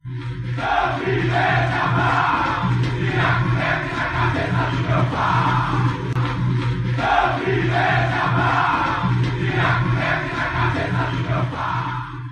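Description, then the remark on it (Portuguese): A large crowd of Atlético Mineiro football fans sings a classic chant against player Thiago Neves, loud and steady for the whole stretch, their massed voices holding a low, droning melody with a rhythmic pulse. “É, o Atlético Mineiro fez até aquela clássica musiquinha.”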